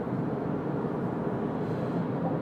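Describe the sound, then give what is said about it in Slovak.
A heavy truck rumbles past outside, a steady low droning roar with no other voices, fairly loud and even throughout the moment. “Akože teraz prešiel okolo kamión pred chvíľou a podľa mňa, podľa mňa to mnohí z vás počuli.”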